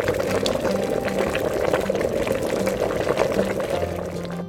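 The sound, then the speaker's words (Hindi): Two cups of water with crushed ginger and cardamom bubble and churn steadily in a pan, boiling for herbal green tea: a dense, continuous hiss with small pops scattered throughout, fairly loud, with no break in the sound. “इसे बनाने के लिए सबसे पहले एक पैन में दो कप पानी डालकर उसे गर्म होने रख दीजिए फिर उस पानी में अदरक और इलायची को कूट कर डाल दीजिए और उसे अच्छे से उबलने दीजिए”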